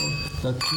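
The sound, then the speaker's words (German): Glasses of sparkling wine are filled and clinked together in a toast, leaving a bright, sustained ringing tone that hangs over voices murmuring in the background. “Also man hört es im Hintergrund schon, Gläser werden gefüllt und es wird angestoßen.”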